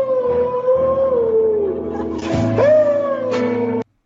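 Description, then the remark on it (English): Dogs howl loudly and continuously along to music being played, their long wavering cries sliding up and down in pitch, with one howl rising sharply near the end before everything cuts off abruptly. “Your your dogs are going crazy.”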